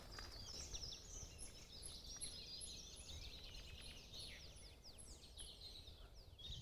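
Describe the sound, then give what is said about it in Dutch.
A pied flycatcher sings its short, repeated phrases from above its nest box, bright chirping notes amid a busy chorus of other birds and a steady low outdoor rumble. “Eh, oh, kijk, Bond Vlieg zit boven zijn nestkastje te zingen. Hoor je? Dit is eh, zijn riedeltje.”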